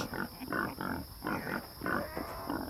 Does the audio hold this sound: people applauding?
no